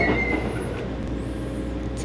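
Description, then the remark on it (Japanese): Steady low rumble inside the double-decker Green Car of an express train riding along the Izu Peninsula, a continuous droning hum with faint rattles and a brief high tone early on, no voices. “これがダブルデッカーのグリーン車です運行終了まであともう少しなので皆さんもぜひこの車両に乗ってダブルデッカーから眺める伊豆半島そして伊豆七島の車窓風景というのを楽しんでみてください”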